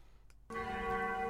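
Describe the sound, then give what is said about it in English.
A single loud strike of a mission bell rings out after a brief hush, its bright metallic tone sustaining and shimmering with rich overtones. No voices are heard. “Well, that's the sound of the mission bell, meaning, of course, it is now our mission segment for the evening”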